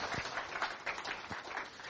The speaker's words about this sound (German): Gebt ihm nochmal noch mal einen richtig warmen Applaus. Dankeschön.